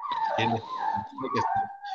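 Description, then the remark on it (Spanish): A small dog whimpers and cries in a continuous high-pitched whine that rises and wavers for about two seconds, with faint muffled voices in the background. “¿Quién tiene el perrito llorando?”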